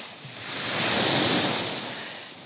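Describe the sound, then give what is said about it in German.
A single sea wave surges onto the beach close by, its broad foamy wash swelling to a peak and then slowly receding, with no voices over the steady roar of water. “jetzt bin ich ein bisschen zu nah am Wasser gewesen. Die Wellen nehmen gerade zu.”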